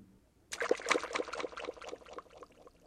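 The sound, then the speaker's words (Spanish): A hand splashes into the water of a well with a sudden burst of sloshing, then the splashing fades into softer dribbles and trickles over a couple of seconds, heard on its own. “Su mano tocó el agua del pozo y la luna se rompió en pedazos que ondeaban sobre el agua.”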